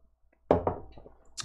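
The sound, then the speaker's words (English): A sharp, fairly loud crack as a Lagunitas Maximus Colossal IPA beer (9%) is opened, a quick double snap trailing into a brief rattle, followed by a short airy hiss. “Uh, let's go ahead and jump into the main story right after we crack open my next beer, because can't start a new story on an empty uh, glass.”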